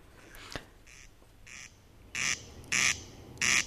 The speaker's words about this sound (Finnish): nousen autosta tai avaan ikkunan, niin kuuluu niin kuin vanha, sanotaanko pappatunturin toi äänimerkki, niin tuota, semmoinen ääni, että mahtaisiko olla ruisräkkä.